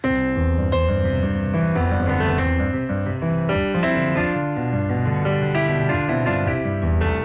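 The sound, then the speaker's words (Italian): The theme of a neoclassical Stravinsky sonata played alone with full, conventional tonal chords rather than Stravinsky's own harmony, a steady and fairly loud melodic line moving over sustained harmonies for several seconds, with no one talking. “Cioè qua io vi ho suonato il tema de, de, di questa sonata, eh, però con gli accordi giusti.”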